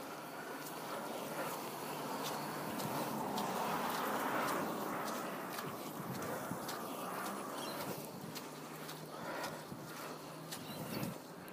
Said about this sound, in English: can tell I'm walking on mud at the moment.